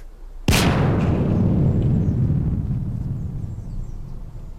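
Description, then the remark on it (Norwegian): A single sudden explosion of a stick of dynamite with fly wings glued to it, offered to a chameleon: a sharp loud blast followed by a deep rumbling roar that slowly fades over several seconds, with no voices. “Vi har limt fluevinger på en dynamittkube, og nå er vi spente på hvordan han reagerer på denne overraskelsen.”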